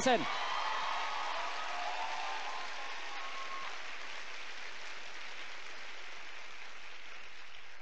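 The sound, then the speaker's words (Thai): An audience applauds in a dense, steady wash of clapping that holds at an even level for about eight seconds, with a few voices cheering faintly over the first few seconds. “โอเคไหมครับ โอเคไหม นะครับ ขอเสียงปรบมือสำหรับคนที่ตั้งใจภายใน 90 วันจะเป็น21%”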